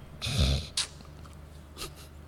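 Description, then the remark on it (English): A voice imitates a woman's asthma-attack gasping: a long, harsh breathy gasp, a quick sharp intake right after, then a fainter gasp a moment later, with no talking. “And next thing she started like gasping. Like I mean, like asthma attack gasping.”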